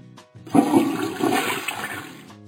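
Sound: toilet flushing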